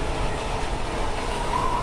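moving train

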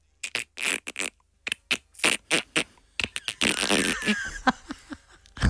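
dolphin calls

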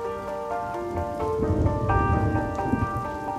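heavy rain falling

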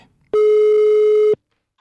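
telephone dialing tone

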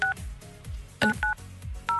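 telephone keypad dialing tones

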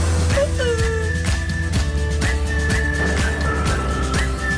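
whistling

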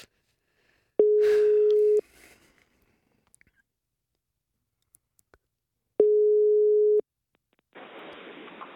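telephone ringing tone

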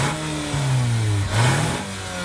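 car engine revving

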